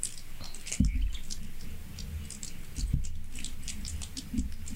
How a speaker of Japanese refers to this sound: 雨降ってんねこれ